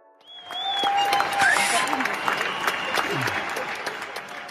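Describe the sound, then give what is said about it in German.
Scattered applause from many people in a neighbourhood clapping at once in the evening at 9 p.m. for medical staff and others keeping public life running, a dense crackle of claps sustained throughout, with a high whistle tone sliding over it near the start and faint voices mixed in. “Klatschen.”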